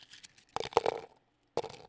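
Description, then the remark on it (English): Crumpled paper slips with writing on them rustle and crinkle in a little bowl as one is drawn out, with a few soft crackles, then a busy burst of scraping and crunching, a pause, and another short rustle. “So um, and they're all crumpled up, so I can't see anything that's written on any of these.”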